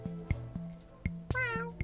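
A single cat, Shitty Kitty, meows on a bed, a rising, tonal call with bright harmonics near the end, over a low steady hum with a few soft thumps and clicks.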